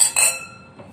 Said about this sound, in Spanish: brindemos. Salud. Salud. Vamos para que los que nos están escuchando oigan.